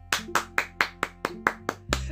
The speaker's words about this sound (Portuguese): Quem gostou, bate palmas para ela.